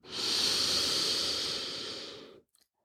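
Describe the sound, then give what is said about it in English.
A long, steady breath drawn in through the nose during a guided breathing meditation, an airy hiss lasting over two seconds before stopping abruptly, followed by a faint small sound. “Breathing in and drawing the light down into your neck and shoulders now.”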